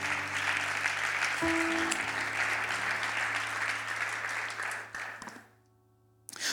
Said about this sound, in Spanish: Ocupe su lugar y dele un aplauso fuerte a Jesús.